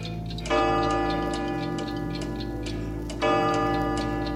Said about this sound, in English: What's with all the clocks? Do you not like the clocks? Do they remind you of home?